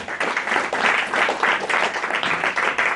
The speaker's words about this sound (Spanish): Oye, apláudele porque esa es una alabanza con tus manos, con tu cuerpo.